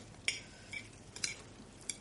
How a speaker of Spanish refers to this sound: Aparta la mano y hurga su comida con los cubiertos.